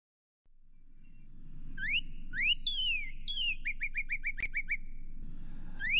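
A Northern Cardinal sings clear, whistled phrases: rising slurred notes followed by a quick series of repeated chips, bright over a low background hum.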